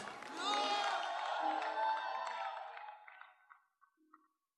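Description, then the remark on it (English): An audience shouts together in a loud, sustained roar of many voices that swells for a few seconds, then fades out into scattered individual cries. “Let me hear your shout.”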